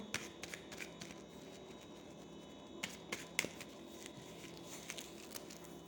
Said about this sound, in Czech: Já už míchám karty, mám před sebou vaši fotku a podíváme se na to.